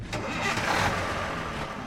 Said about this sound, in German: Er kletterte mit den anderen Polizisten auf einen der Laster, die für sie bereitstanden. Die Wagen brausten los.